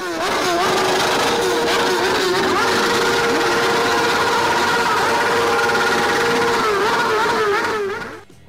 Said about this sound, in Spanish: gritan, aplauden y alientan a cualquiera que pase arriba de una moto y se enloquecen cuando la demostración de afecto es retribuida con una violenta acelerada.